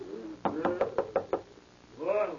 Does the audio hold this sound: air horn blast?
no